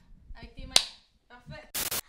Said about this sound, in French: Le micro, il marche pas? Mets, le micro dans tes cuisses, de même. Ça puis là, tu fais une claque.